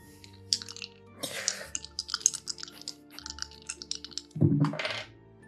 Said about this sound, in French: Ah, mon dé est allé là. OK, j'avais fermé les yeux, j'avais perdu mes dés de vue.